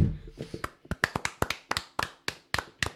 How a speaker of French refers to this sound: Bon, on peut-tu faire une petite clap de golf pour Canadien pour on passe à autre chose?